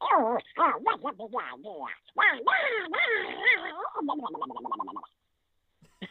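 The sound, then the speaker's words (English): A voice performer imitates an irascible, easily angered cartoon duck, a rapid run of raspy, squawking quacks with rising and falling pitch, ending in quick staccato bursts before a brief silence. “I started out in Disney on parade as the voice of Donald Duck”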